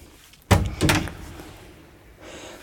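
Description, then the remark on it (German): A front door is opened after a doorbell ring, with a sharp clunk and a second rattling knock right after, then quiet hiss with no one speaking; no one is outside the door. “Also hier vor der Tür ist niemand.”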